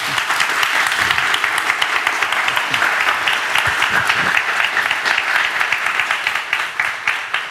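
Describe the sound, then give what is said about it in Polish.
An audience applauds Szczepan Twardowski steadily for several seconds, a dense wash of many hands clapping at even loudness, tapering slightly at the end. No one speaks over it. “Drodzy Państwo, wielkie brawa dla niego.”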